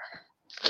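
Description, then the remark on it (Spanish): A single sneeze: a short breathy intake, a brief pause, then a sharp, loud burst of noisy air that trails off quickly. “Salud.”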